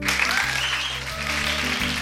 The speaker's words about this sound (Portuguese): Juiz de Fora, palmas para Juiz de Fora!